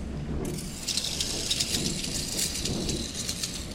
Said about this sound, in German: Wasser schießt ein und setzt das Schaufelrad in Bewegung. Per Transmission über große Zahnräder und Lederriemen beginnt sich auch der Schleifstein zu drehen. Das ist ein altes Gartenmesser, was ich hier schleife.